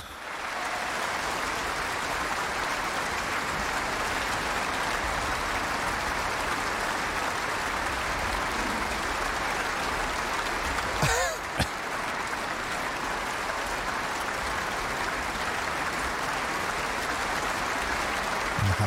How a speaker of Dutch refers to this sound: Maar ja, zo'n applaus in een concerthal, dat kan erg lang duren inderdaad.